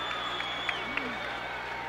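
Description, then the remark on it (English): Steady roar of a large wrestling arena crowd applauding and cheering Triple H's Pedigree move, with The Rock clapping too; dense and unbroken for the whole stretch, with a couple of sharper claps or shouts poking through the wash of noise. “And you got quite a round of applause there.”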